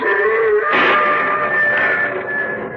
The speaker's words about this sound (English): What was that? There it is again. Listen. Do you hear that? Afraid I do. Sounded like an animal howling. Rather big animal. Something one might easily call a beast.